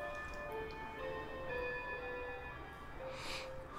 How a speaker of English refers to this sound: That's when an old fashioned clock chimes above the mantel.